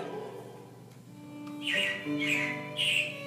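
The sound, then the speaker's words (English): Robins chirping: after a second or so of quiet, three loud, slightly harsh calls come in quick succession, with no voices present. “Yeah, it looks like the robins are getting ready to celebrate Valentine's Day today.”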